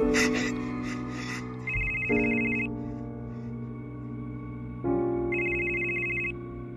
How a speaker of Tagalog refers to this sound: Nagising ako sa isa na namang tawag sa cellphone ko,